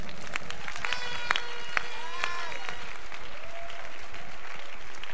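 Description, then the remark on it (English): A church audience bursts into steady, dense applause during a sermon, clapping for the Lord, many hands clapping together for about five seconds at an even volume, with a few brief vocal cries rising above the clapping. “Give the Lord a clap of and I'm preaching.”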